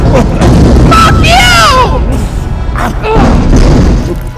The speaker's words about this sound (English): Can you hear this station crumbling around us? It'd be beautiful if this is how it went out!